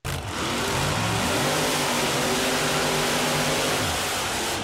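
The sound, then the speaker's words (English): A monster truck engine revs loudly and steadily, its deep throaty roar climbing and dipping in pitch over a few seconds, with no voices present. “And mash that loud pedal.”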